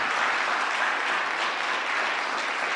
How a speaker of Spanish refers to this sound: Dele fuerte esa ofrenda de palma al varón perfecto.